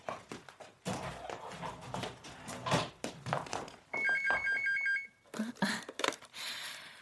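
An electronic telephone at a Samjin Electronics dealership trills in a short burst of rapid, warbling beeps, fairly loud, in the middle of a stretch of clattering thumps and bumping noises.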